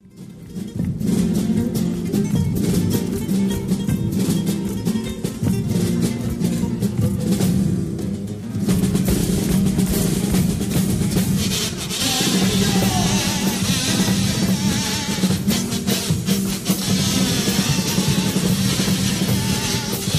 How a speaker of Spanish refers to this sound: Pues vamos ahí ahora a escuchar lo que vienen siendo las, eh, las dos primeras peticiones, que son para comenzar, cuplés de comparsa. Nunca nos piden cuplés de comparsa.